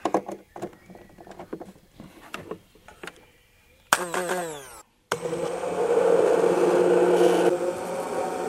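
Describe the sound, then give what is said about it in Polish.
Irregular clicks and clatter, then a blender motor whirs up with a rising whine, cuts off briefly, and the blender roars loudly and steadily, grinding thick peanut butter until the end. “E, drugi element to blender, ponieważ te, to masło orzechowe trzeba zblendować.”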